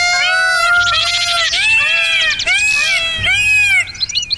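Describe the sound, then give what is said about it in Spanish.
A loud, dense chorus of birds calling and squawking over one another, harsh overlapping cries with rising and falling pitch, continuous and noisy throughout. “Pero solo consiguió que hicieran todavía más ruido.”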